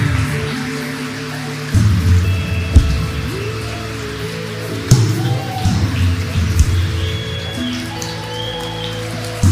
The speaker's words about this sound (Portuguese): Vamos lá, a igreja pode aplaudir essas pessoas agora aqui.